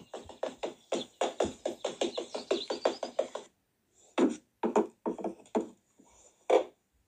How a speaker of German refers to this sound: Mist! Jetzt ist mir diese vertrocknete Pflanze runtergefallen mit so einem Plastiktopf. Oh! Warte, wenn ich sie einfach wieder aufstelle. Nur ein bisschen Erde, aber das sieht man nicht.